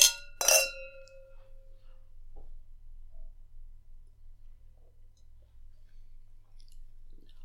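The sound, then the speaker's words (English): Two bright glass clinks ring out close together right at the start in a toast with vegan wine, their tones lingering briefly before fading into a quiet, low background hum with no talking. “So, cheers.”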